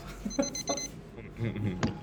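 A timer alarm rings with a quick run of high-pitched electronic beeps for about half a second, then stops as people start talking over a quiet background.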